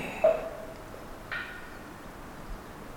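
A Japanese bush warbler sings faintly: a brief clear whistled note, then a short higher flourish a second later, over a soft, steady outdoor hush.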